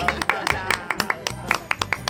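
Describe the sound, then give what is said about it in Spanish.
Steady, rhythmic hand clapping, roughly ten crisp claps in quick succession, moderately loud, with a faint murmur of voices underneath. “Aplausos. Aplausos.”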